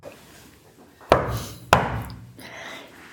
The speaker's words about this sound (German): Mom, bist du das? Wenn nein, klopfe einmal. Wenn ja, zweimal. Und es klopft zweimal.